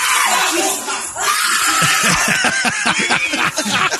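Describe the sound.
A loud, shrill scream bursts out amid a chaotic jumble of shouting voices and laughter, intense, with bright pitched cries rising and falling throughout, in a video of a robbery at a Taiwanese grocery store.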